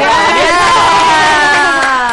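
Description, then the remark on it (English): A loud crowd cheers and whoops continuously for a couple of seconds, with sustained high-pitched shouts over a dense wash of applause-like noise, sounding like a canned celebration effect. “We need the applause for that”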